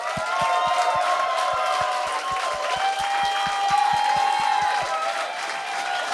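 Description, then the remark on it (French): An audience applauds loudly and steadily as two guests are introduced, a dense wash of many hands clapping with cheers and whoops rising over it, while a rhythmic low thump beats through the first five seconds. “Mesdames et messieurs, donnez une bonne main d'applaudissement.”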